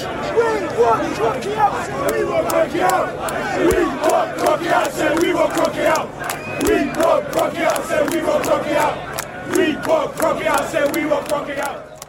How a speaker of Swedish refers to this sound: Ja, där hörde vi Arsenal-supportrar som inte var så nöjda med superligan.